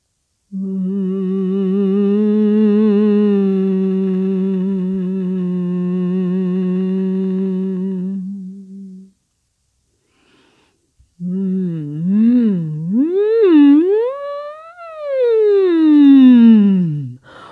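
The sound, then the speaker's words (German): A relaxed hum on the singer's own natural pitch holds one steady, low-pitched note for about eight seconds, then after a short pause returns as a voice gliding up and down in smooth, wavering swoops. “Ja, aha, ja, ja, ja, da kommt man in den Eigenton ganz entspannt summen.”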